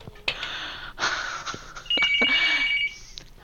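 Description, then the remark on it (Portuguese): A telephone rings with a bright, trilling electronic tone, fairly loud, in short bursts with brief gaps and a few sharp clicks; no one speaks. “Ih, tô com o telefone. Alô?”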